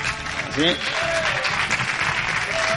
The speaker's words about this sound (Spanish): Em, bueno, qué aplauso, sí señor. fantástico.